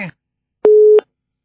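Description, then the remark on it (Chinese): A single steady busy-signal beep from a telephone after a call was hung up, a flat mid-pitched tone lasting about a third of a second with clicks at its start and end, after a brief burst of speech. “哎呀，太激动了，电话都挂掉了。”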